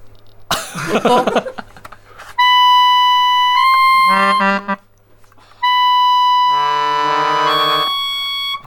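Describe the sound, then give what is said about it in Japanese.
A soprano keyboard harmonica plays long, bright, reedy held notes in a high register, two sustained phrases with a brief gap, after a short breathy noise burst at the start. “楽器は高い音の出る、はい、ソプラノ鍵盤ハーモニカという楽器ですね”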